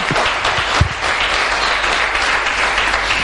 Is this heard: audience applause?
yes